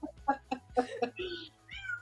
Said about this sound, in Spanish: Ay, el gato. El gato de quién está opinando hoy.